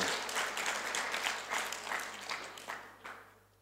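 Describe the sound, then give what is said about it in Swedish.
Audience applause given to Jesus: a crowd clapping steadily in a dense, crackling wash of hand claps that swells briefly and then thins out toward the end, with no voices. “Låt oss ge Jesus en applåd.”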